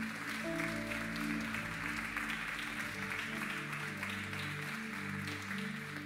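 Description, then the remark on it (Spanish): An audience claps for God, loudly and steadily for about six seconds, a dense, continuous wash of applause over sustained keyboard chords playing underneath. “Dale un fuerte aplauso a Dios si lo crees.”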